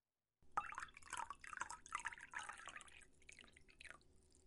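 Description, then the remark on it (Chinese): A flight attendant pours champagne into a passenger's glass on an airplane, a steady stream of bright, fizzy splashes and gurgles lasting several seconds, then trailing off into softer drips. No one speaks. “好的，先生，这就为您倒上。”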